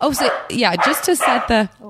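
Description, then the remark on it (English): A dog barks and yips a few times, its sharp calls overlapping with a person talking over it. “that's my dog.”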